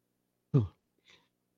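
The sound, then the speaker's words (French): A single sharp cough bursts out from someone with a slight sore throat, followed a moment later by a softer, breathy throat-clearing rasp, with silence around both. “Euh, effectivement, je m'étais mis sur mi-haute pour tousser.”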